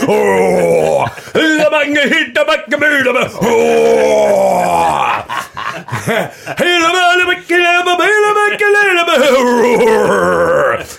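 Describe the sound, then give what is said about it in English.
A loud voice imitates the gravelly vocal growl that the singer of a band ends a new song with, in long strained wordless phrases with a wavering, bending pitch and short breaths between them. “he had a little growl.”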